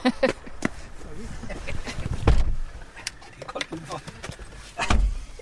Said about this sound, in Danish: Det synes jeg, vi skal sætte os ind i bilen.